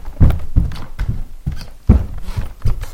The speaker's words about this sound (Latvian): Šeit ir čīkstīga grīda.